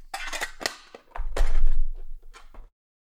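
Role-playing dice, including an amber-coloured one and a white one, are picked up and handled: small hard clatter and clicks, a series of sharp light clicks with a brief rattling shuffle in the middle, no voices.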